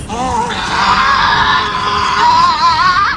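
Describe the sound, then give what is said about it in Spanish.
Loud, anguished screaming of demons rushing out of a cave, with wavering, strained pitch, sustained for about three seconds without a break, intense, desperate cries of distress. “De inmediato los demonios salen encandilados de la cueva, gritando desesperados.”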